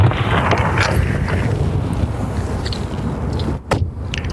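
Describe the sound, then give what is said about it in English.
A car rolls slowly to a stop as it parks on icy ground beside the frozen Richelieu River. Its engine is a steady low rumble mixed with wind buffeting the microphone, with a brief crunching break near the end. “So let me just uh, park here.”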